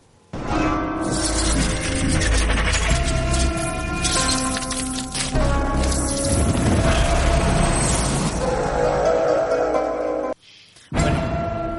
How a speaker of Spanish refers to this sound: continuamos con The Strain, esa serie que de la que todo el mundo está hablando, y vamos a escuchar el opening